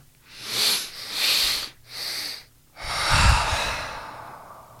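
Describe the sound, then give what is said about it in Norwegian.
Audible breathing in a breathing exercise: a few short breaths drawn in, then a long, loose exhale, neither pushed out nor held back, that trails off softly. Fairly quiet, with no talking. “Og det er litt av poenget at på utpustet så gjør vi ingenting. Vi kontrollerer det ikke, vi dytter det ikke ut”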